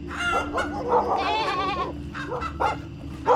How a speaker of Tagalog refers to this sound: Ang ingay-ingay ho ng mga alaga naming manok, aso at kambing doon sa likod ng bahay namin